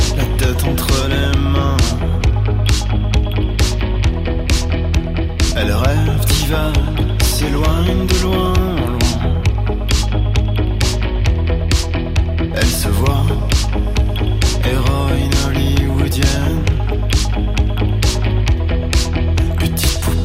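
A cold wave pop song plays loud and steady, with a driving, regular drum beat under layered synths and melodic lines for the whole stretch; no one speaks over it.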